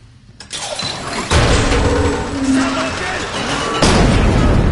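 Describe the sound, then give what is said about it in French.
A heavy mechanical rumble starts abruptly and grows louder in stages, ending in a deep, sustained grinding roar, as a security door that someone accidentally triggered slides shut. “C'est moi, j'ai dû déclencher une sorte de porte de sécurité.”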